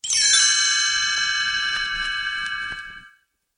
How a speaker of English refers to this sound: You will know it is time to turn the page when you hear the chimes ring like this.